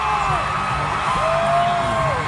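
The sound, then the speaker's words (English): A large crowd cheers loudly and continuously as a state governor is welcomed to the stage at a Florida fundraising event, with sustained whoops and yells rising above a dense wall of applause-like roar, at steady volume throughout. “Crowd going nuts.”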